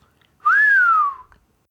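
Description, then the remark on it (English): A single human whistle from Detective H2O, clear, rising briefly then sliding slowly downward in pitch over about a second, like an impressed or surprised reaction, with no talking. “Detective H2O whistled.”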